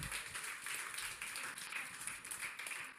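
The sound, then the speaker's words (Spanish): Dense, sustained applause from a crowd, many hands clapping at once in a steady wash of bright, crackling noise with no pauses, lasting the full few seconds. “Dale un aplauso fuerte al rey.”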